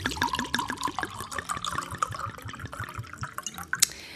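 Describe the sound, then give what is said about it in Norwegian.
Wine glugs from a bottle into a glass in a living room, in a quick, steady rhythm of gurgling pulses, moderately loud with no voices, ending with a brief sharper splash. “Jeg tenker at det kan bli noen timer, så jeg eh, har tatt fram en flaske vin.”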